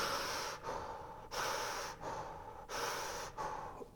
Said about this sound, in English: And then we move people into what I call circular breathing. You take away both pauses. And now the breath is like a wheel turning.